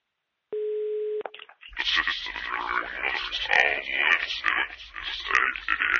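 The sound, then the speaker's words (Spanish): A single steady electronic mobile phone ringing tone sounds for under a second, then a burst of loud, dense noise takes over. “Yo, creo que, aún tengo por ahí el teléfono. espere a ver. ¿Sí? ¿Pero qué hace? De, deje el móvil.”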